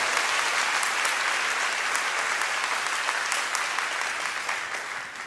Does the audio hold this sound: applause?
yes